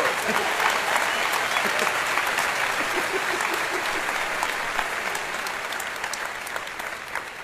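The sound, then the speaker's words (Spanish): An audience applauds steadily for Diego, a dense wash of many hands clapping at a fairly even loudness that eases off slightly toward the end, with no talking over it. “no, de verdad, fuerte aplauso para Diego.”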